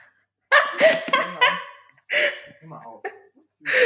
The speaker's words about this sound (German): Ach, so ein süßer Hund.